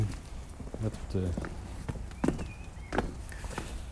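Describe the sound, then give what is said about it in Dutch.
Footsteps crunch along a forest path toward a bench at an unhurried walking pace, moderately loud, with a brief murmur of voice in between the steps. “Kunnen we even erheen lopen.”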